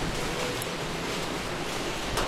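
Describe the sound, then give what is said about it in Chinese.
Steady rain falling in Shenzhen, an unbroken, even hiss spread across a wide range of pitches, holding at a constant moderate level throughout with no voices. “好，接下来时间的话，让大家好好的来聆听一下这里的雨声，”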